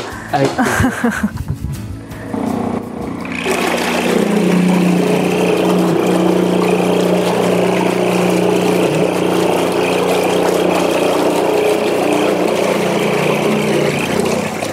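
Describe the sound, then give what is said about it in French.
After a few seconds of quieter clatter, an all-electric membrane boat propulsion system, driven by a coil and magnet instead of a rotary motor and with no rotating parts, starts and runs steadily, a loud continuous mechanical hum with a rushing, whirring noise layered over it. “Et alors comment vous l'actionnez euh, la membrane eh Comment vous la faites bouger en fait, on, a remplacé un moteur rotatif par euh, une bobine et un aimant.”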